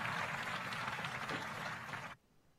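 Audience applause, a dense, steady wash of many hands clapping that holds at an even level for about two seconds before cutting off abruptly into near silence.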